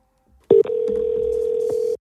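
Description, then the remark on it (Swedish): A single steady electronic phone tone sounds once, clear, starting abruptly and holding for about a second and a half before cutting off, as an outgoing call to someone in Qatar rings on the line. No voices. “Då tycker jag vi gör så att vi ringer upp”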